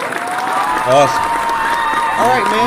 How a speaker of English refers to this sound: All right, uh, I can hit the clap for that.